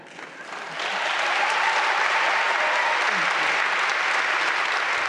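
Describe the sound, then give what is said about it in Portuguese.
Audience applause after American poet Lucille Clifton reads her own poem: dense, steady clapping from many hands that swells within the first second and then holds at a full, even level to the end. “E ficam os aplausos, porque é tão sentida esta leitura, tão vibrante, tão de dentro, na voz da autora Lucille Clifton.”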